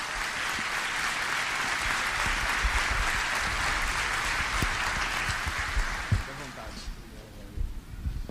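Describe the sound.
A round of applause from a crowd, steady dense clapping for about six seconds that then thins out and fades, with a few scattered claps and murmuring voices at the end.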